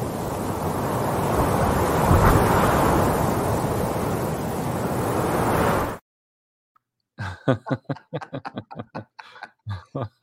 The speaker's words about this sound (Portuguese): Não precisava nem de nada ser falado nessa vinheta, só o vento.